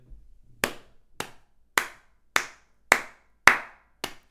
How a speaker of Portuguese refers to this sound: E aqui foram sete palmas para esta loja.